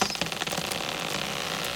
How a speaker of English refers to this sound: There's a rustling in the trees. Nothing to worry about. It's only a possum gathering food under the watchful eye of an owl.